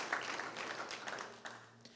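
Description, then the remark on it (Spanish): A crowd applauding during a sermon, dense overlapping claps forming a steady wash of noise at moderate volume, with a faint hum underneath and no one speaking. “Pueden aplaudir.”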